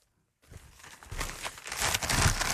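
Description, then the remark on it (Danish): Newspaper pages rustle and crinkle after a brief silence, a continuous papery crackling that grows busier and louder with sharp crisp bursts, no voices present. “Det er alaviser.”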